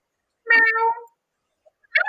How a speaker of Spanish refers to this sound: Al lado, porque ya se nos metió un gato, mm. cabrón. Tengo que botarlo.